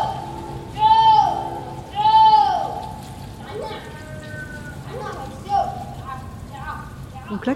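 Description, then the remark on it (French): A villager calls out to buffaloes in the marshes with long, high, wavering cries: two loud drawn-out calls, then several fainter, shorter ones, over a steady hiss like rain. “Alors c'est un habitant qui euh, effectivement est en train d'appeler les euh, buffles qui sont dans les marais.”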